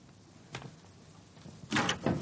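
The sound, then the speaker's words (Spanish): The door of a room opens: first a soft click, a pause, then a louder rustling, scraping sweep of the door moving. No voices are heard. “Ya se abre la puerta de la habitación y la mira fijamente.”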